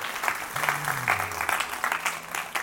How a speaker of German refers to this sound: Haben wir mal einen riesen Applaus? So gut! Danke vielmals.